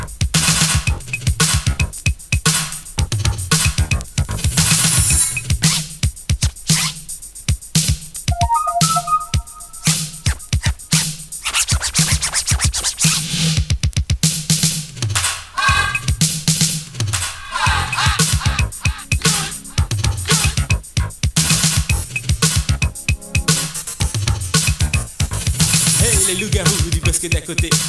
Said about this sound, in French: bon ben, venez, on écoute ce qui se faisait en hip-hop à l'époque